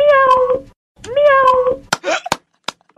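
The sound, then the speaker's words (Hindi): Someone on a phone call imitates a cat with two loud, drawn-out meows, one after the other, followed by a few short bursts of laughter or chatter. “आप करो बिल्ली का आवाज निकालो हाँ हाँ अभी इसी वक्त”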